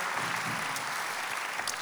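Sustained audience applause, a dense steady wash of many hands clapping at even loudness throughout, with no talking over it.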